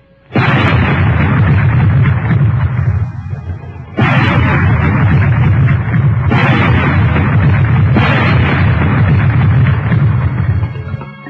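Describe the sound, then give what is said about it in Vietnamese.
Four loud gunshots ring out at uneven intervals, each a sharp crack followed by a long, heavy rumbling echo that fills the gaps between shots, heard aboard a boat under a cloudy sky as two motorboats approach. No one speaks. “Bốn tiếng súng như xé màn tay mọi người, làm cả bảy cái đầu đều quay về phía hai chấm đen một lượt.”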